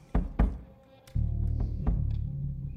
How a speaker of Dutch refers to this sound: Donder. Je zou wel verder willen tellen, maar het geluid is alles overheersend.